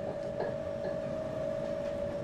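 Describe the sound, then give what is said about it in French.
An RER B commuter train, the line running to the town of Orsay in Essonne, France, rolls along with a steady low rumble and a sustained whining hum, continuous and moderately loud with no voices. “Pour y aller, il faut prendre le RERB jusqu'à la ville d'Orsay, puis un bus.”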